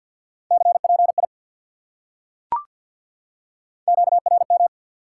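Fast Morse code at 50 words per minute in a steady mid-pitched tone: two short bursts of rapid dits and dahs separated by a pause, with a single sharp click in between. No voices.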